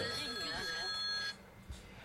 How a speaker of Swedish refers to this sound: Ja, nu ringer det.